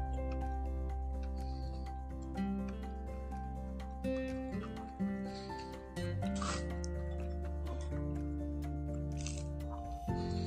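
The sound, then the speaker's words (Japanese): Wet chewing sounds of a person eating breakfast during a live audio stream, with irregular squishy clicks and smacks repeating throughout, heard over a steady low background hum, with no talking. “こんなね、咀嚼音してるライブの方が、すっごい考えてやった音声配信よりも聞かれるっていうね。”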